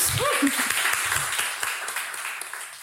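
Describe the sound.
A crowd applauds in a dense, steady patter of many hands clapping, fading slightly toward the end, with a brief voice and cheer near the start.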